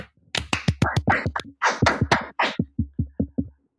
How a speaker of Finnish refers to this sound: Ja, ja mä voin ilokseni todeta, että meillä on yksi supersetä liittynyt tähän mahtavaan klubiin. Annetaan hänelle aplodit.